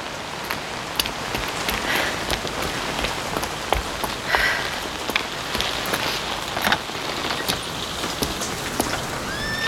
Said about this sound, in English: I would even consider holidaying here, but not for this weather. I should go inside. The rain's getting stronger.